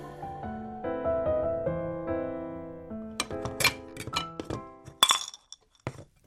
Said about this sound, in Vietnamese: U Chun loay hoay một hồi mới chọn được cái chảo vừa ý.